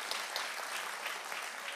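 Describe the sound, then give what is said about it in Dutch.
A church audience claps for the preacher's wife as she comes forward, a steady, dense wash of applause that stays even and fairly loud for a couple of seconds, with no voices standing out. “Ehm, ja, geef haar even een applaus.”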